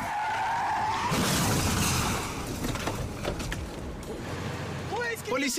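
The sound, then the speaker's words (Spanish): During a police chase in Santa Fe, the fugitives' car tires squeal in a sustained skid, then a loud, crunching crash hits, followed by rumbling debris noise and a few short squeaks near the end. “Pensarías que saldrían heridos y lastimados dado que fue un fuerte choque.”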